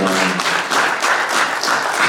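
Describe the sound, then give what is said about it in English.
A crowd applauds a woman for being up there during a discussion about hip hop, with steady, dense clapping that stays loud throughout, with faint voices mixed in at the start. “Yeah, I just wanted to uh, please um, just give her applause for just even being up there.”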